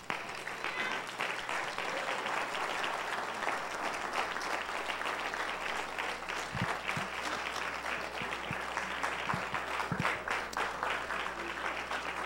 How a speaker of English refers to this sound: Let's give the Lord a hand of praise.